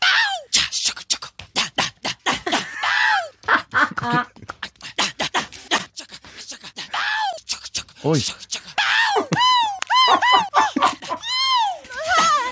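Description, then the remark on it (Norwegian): Rapid-fire chopped vocal yelps, grunts and gasps, cut together from every time a marketing manager makes these noises and edited into a 15-second summary of a pop song, spliced into a beat-like pattern mimicking its rhythm and melody with rising and falling pitched cries, loud and dense throughout. “Han har klippa sammen alle gangene markedssjefen lager de lydene. Og klippa ned til en 15 sekunders oppsummering”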